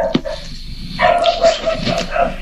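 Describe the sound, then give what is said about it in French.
Dogs bark in an excited burst: a sharp yelp near the start, then a run of overlapping barks and yips, fairly loud against a busy background. “Merci pour les chiens.”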